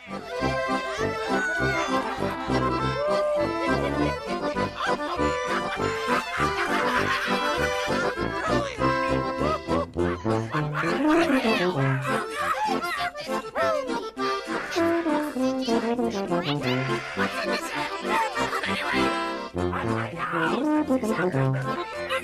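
A lively, festive instrumental tune plays loud and continuous throughout, with a bouncing bass line and bright melodic phrases layered over a steady, dance-like rhythm.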